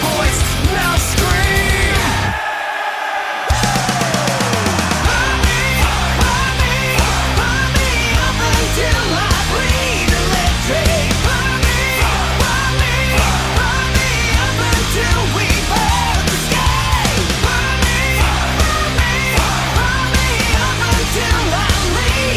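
A loud, dense metal song with pounding drums and distorted guitars. After a brief break near the start, the full band charges back in and plays on steadily.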